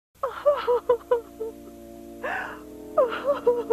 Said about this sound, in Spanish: Muestran al obispo preocupado porque no sabe qué les va a decir a los hermanos y a la esposa, y la esposa se larga un llanto que le mueve el alma a uno.